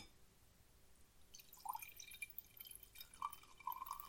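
Wine is poured again into a glass as a refill: a soft, steady splash of liquid with a few brief glugging bubbles near the end, quiet, with no voices.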